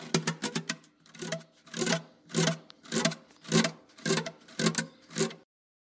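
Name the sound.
guitar being played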